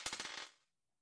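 A die clatters across a hard table in a quick burst of about six sharp clicking bounces, then settles into silence within half a second.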